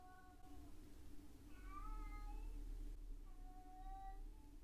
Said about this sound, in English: That's the cat.